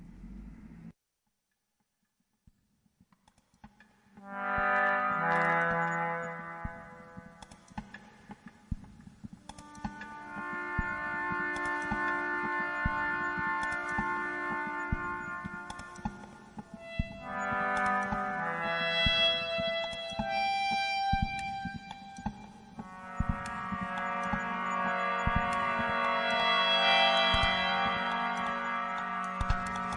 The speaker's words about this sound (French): une pièce expérimentale et minimaliste créée à partir de jouets d'enfants récupérés.